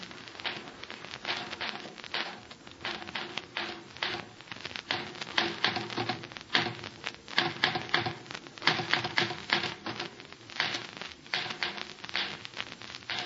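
Rapid mechanical typewriter keystrokes clatter in dense, uneven bursts for the whole stretch, fairly loud, with no voices over them.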